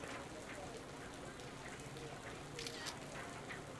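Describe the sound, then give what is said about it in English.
Steady rain falls in a continuous hiss, with scattered sharper drops pattering through it at an even, moderately loud level, heard by someone standing on an ancient stone parapet overlooking a city. No one speaks. “You close your eyes and let the rain hit your face. It always rains here.”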